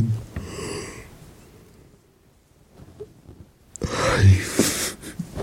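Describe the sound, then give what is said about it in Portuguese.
A drawn-out, breathy yawn from a person in bed at two in the morning, with a softer exhale at the start, a near-silent pause, then a louder moaning stretch that trails off. “E são duas da manhã, por isso é normal estar-me estar a bocejar, ok?”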